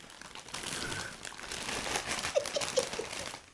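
Popcorn pours into a bowl with a steady, dry rustling patter, fairly quiet, ending in a few light taps as the last pieces drop in. No one speaks.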